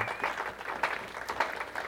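A church audience gives itself a hand clap of appreciation, applauding in a dense, steady patter of many hands clapping at once, with a few sharper bursts rising out of the wash before it carries on.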